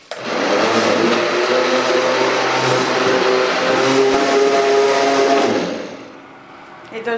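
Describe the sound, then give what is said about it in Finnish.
An immersion blender mixing an ice cream base whirs loudly and steadily for about six seconds, a dense motor drone with a wavering pitch, then winds down and cuts off near the end. “semmonen jätti... Sauvasekootin.”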